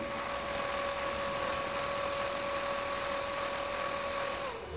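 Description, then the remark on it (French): A strange machine made of fans, at the centre of a group of sound-making machines, blows a steady rush of air, with a sustained humming tone riding on top that slides down in pitch right at the end. “Au centre, une étrange machine faite de ventilateurs souffle, quand c'est à elle de jouer.”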